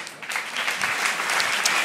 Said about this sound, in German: dass nochmal für alle nochmal ein kräftiger Applaus kommt